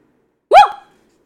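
A single short bark from a lost dog, a quick yelp-like burst with a rising-then-falling tone, sounding alone against silence.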